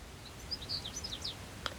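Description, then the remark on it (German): A bird perched at the very top of a spruce sings its evening song around 8:15 pm, a bright, warbling phrase of quick high chirps and trills, fairly clear against a quiet background with a low rumble of ambient noise. “Und höre dem Vogelgezwitscher zu.”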